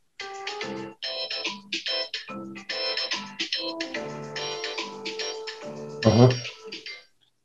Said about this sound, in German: Das war aber nicht der Klingel, äh, nee, Klingelton, wollte ich schon mal sagen, die Einführungsmelodie, die wir sonst haben. Das ist eine andere gewesen. Ja, wir versuchen mal was Neues.